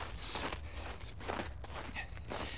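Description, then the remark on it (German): Hurried footsteps crunch through snow as a man in a hat, carrying an umbrella, walks quickly uphill toward Schwarzenberg on a bright, cold day; several quick, uneven steps over a low, steady rumble, with no one speaking. “Er rennt wieder wie verrückt.”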